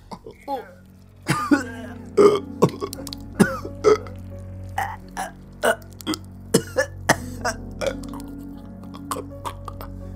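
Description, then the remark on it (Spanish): Repeated wet, throaty retching and gagging bursts, a dozen or so sharp convulsive heaves with gurgling between them, loud and irregular like a vomiting sound effect, with no talking over it. “La peste y el sabor le orillaron a vomitar de nueva cuenta, siendo esta vez en mayor abundancia.”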